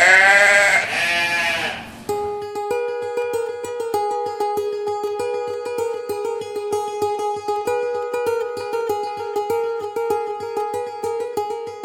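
A single loud, wavering goat bleat lasts about two seconds, then gives way to upbeat music with a steady, punchy beat and sustained tones. No one speaks.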